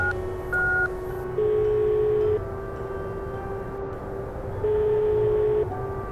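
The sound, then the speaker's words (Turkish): A series of clear mobile phone keypad tones as a home phone number is dialed: a short beep followed by two longer held dual tones, heard alone over a low background hum. “Cep telefonumu çıkarıp Tahir Hoca'nın ev numarasını tuşladım.”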